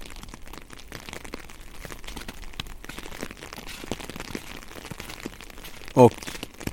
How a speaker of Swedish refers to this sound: Så idag regnar det. Mysigt va?